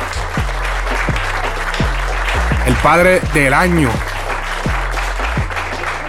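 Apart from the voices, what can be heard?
applause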